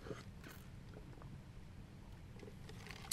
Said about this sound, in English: it's raining on the damn car. I got water everywhere.